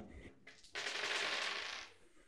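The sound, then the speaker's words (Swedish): Seven dice are briefly shaken, then rattle and clatter across a hard surface in a dense, bright burst lasting about a second, moderately loud, rolled for a composure and socialize check in a tabletop role-playing game. “Slår jag sju tärningar.”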